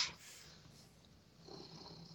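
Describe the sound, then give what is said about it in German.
A cat purrs softly and steadily, a low continuous rumble, with faint hiss in the background and no one speaking. “Mio Kätzchen.”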